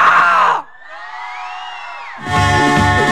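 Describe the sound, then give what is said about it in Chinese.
A loud burst of nightclub crowd screaming and cheering, then a sustained high, wavering scream or whistle-like cry, before the loud cheering crowd returns with rhythmic music underneath. “要在不一样的夜晚有不一样的音乐，不一样的音乐有没有不一样的尖叫的？”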